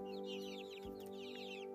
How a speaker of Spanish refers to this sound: Y cuando la gallina caminaba, los pollitos la seguían diciendo pío, pío, pío. Y la gallina iba para allá y los pollitos la seguían diciendo pío, pío, pío.